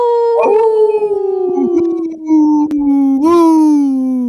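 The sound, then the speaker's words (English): A wolf howls, loud and sustained, its long wavering note sliding slowly downward, briefly breaking off midway before swelling again and trailing off lower. “That was a good howl.”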